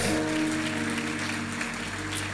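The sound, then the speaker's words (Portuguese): An audience applauds the Lord in a dense, steady wash of clapping that holds at an even level, with a low sustained organ-like tone underneath and no clear talking. “Você pode aplaudir ao Senhor por essa verdade?”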